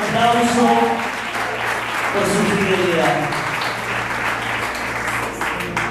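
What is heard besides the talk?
audience applauding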